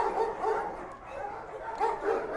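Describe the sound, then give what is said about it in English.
Several dogs bark and yip in a busy, overlapping chorus, moderately loud, with repeated bursts throughout. “you're gonna bring out the actual dogs in a pile.”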